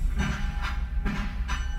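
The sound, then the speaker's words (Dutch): Steady low rumble of a moving train from inside a carriage, with rhythmic bursts of hiss or clatter recurring about every half second and no talking. “Maar waar deed je dat dan? Hier gewoon in de coupé?”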